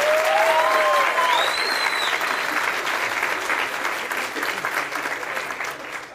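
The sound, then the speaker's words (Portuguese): Sustained audience applause for Neto, a dense wash of clapping that stays loud for about six seconds before easing slightly, with a few faint whistles rising above it early on. “Salva de palmas, sou fã, eu e meu pai.”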